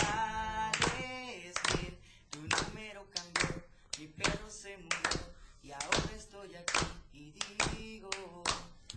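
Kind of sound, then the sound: crowd, audience applause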